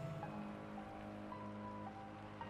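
Steady rain falls on a street in a continuous, even hiss with no pauses, fairly soft and spread out, with a faint low hum running underneath and no voices.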